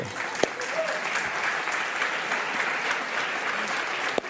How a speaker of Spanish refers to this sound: Denle aplauso.